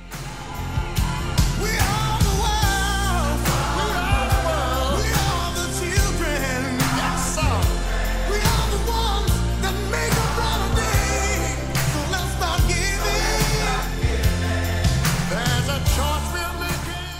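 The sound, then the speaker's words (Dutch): A loud, full-band pop anthem with singing over steady drums and bass, where a lead voice sings a line and a group of voices echoes it back in call-and-response. “Eh, iemand zingt wat voor en er wordt nagezongen worden.”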